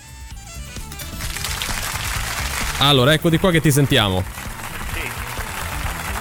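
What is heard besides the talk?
theater audience applause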